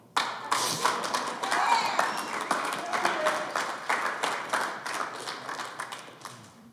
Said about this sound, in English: That is awesome. Yeah, you can not clap for that.